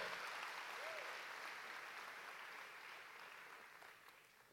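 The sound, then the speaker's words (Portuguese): An audience applauds steadily, a dense, even wash of many hands clapping that slowly fades over several seconds, with a brief vocal sound near the start. “Aplauda, isso.”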